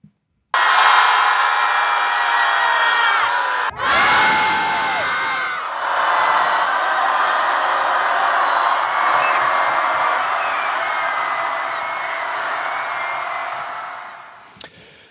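A large crowd of several thousand young people protesting for climate action in several places in Norway roars continuously, a dense, loud wall of shouting and cheering voices that holds steady for about fourteen seconds, with a brief abrupt break early on.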